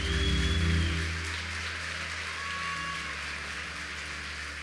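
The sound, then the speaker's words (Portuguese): A church audience applauds for God in a dense, steady wash of clapping that holds evenly for several seconds, with a low droning hum underneath at the start. “Se é para Ele, aplaude com toda a tua força.”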